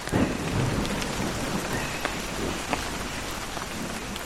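Heavy tropical rain pours down steadily in a dense hiss, with occasional sharper drips and a low rumble of thunder underneath, an afternoon rainy-season downpour in the Amazon city of Belém at the mouth of the Amazon. No voices are heard.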